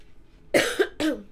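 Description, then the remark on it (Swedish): A sneeze bursts out in two sharp, noisy blasts about half a second apart, loud and breathy against a quiet background, with no talking. “Oj, prosit.”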